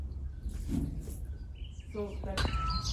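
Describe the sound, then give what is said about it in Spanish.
Small red birds chirp in quick, bright bursts against a steady outdoor background hum, with a cluster of sharper tweets near the end. “Vean estos pajaritos, qué lindos, chiquititos, rojos.”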